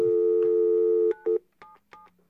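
A steady telephone dial tone gives way to a few quick dialing beeps, then short, evenly spaced busy-signal tones repeat, played as a sound effect. It is clear, with no voices.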